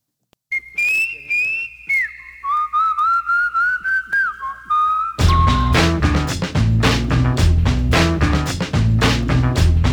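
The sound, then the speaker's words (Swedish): A clear, close whistled pop melody carries alone for several seconds, then a loud full band with a driving beat kicks in, the whistled tune continuing faintly over it. “Jag, lyssna noga på vissling skulle jag kunna säga.”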